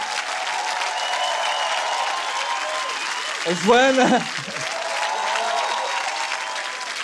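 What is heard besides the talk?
audience applause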